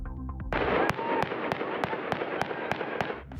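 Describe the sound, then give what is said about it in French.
A rapid burst of live-round warning gunfire from the Turkish army in a Kurdish village in Van province, eastern Turkey: about a dozen sharp, evenly spaced shots cracking out over roughly three seconds against a loud, dense rush of background noise, then cutting off. “Les rafales que l'on entend sont des tirs de sommation de l'armée turque à balles réelles.”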